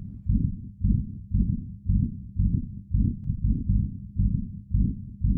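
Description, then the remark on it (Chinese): A man's rapid heartbeat thumps in low, muffled pulses, roughly two beats each second in a steady, racing rhythm, with no voices. “他的心跳加剧”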